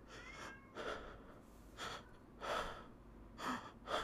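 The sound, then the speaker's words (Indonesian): A voice imitates short, shallow gasping breaths of sudden breathlessness, as when something is stuck in the throat: about six quick airy inhales in an uneven rhythm, fairly quiet, with no talking in between. “Seketika sesek napas. Napas gue tuh kayak bener-bener yang cuman”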